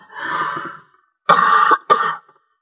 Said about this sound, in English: and it's funny i'm about to cough